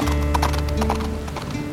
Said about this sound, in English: Then he shrugged and laughed harshly and tossed a parcel at the farmer, turned his horse around, and galloped off into the storm, his hounds giving chase.